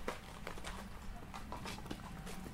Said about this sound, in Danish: Hov, der kom to heste.